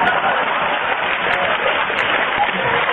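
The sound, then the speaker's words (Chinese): An audience applauds someone going to the toilet, clapping steadily for about three seconds, a dense, even wash of clapping that holds a fairly constant loudness throughout with no voices standing out above it. “上厕所有掌声，江泽民都没这待遇。”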